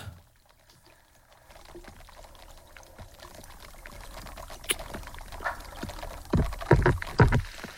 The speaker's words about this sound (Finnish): Ui, tässä kaadetaan vettä. Mä, siis mä, mä en oo tätä... Mitä tästä, Mitä tästä tapahtuu? Siis tää kaataa vettä johonkin kulhoon ja siinä on tuommoinen hiiliha, hiilihappoklöntti.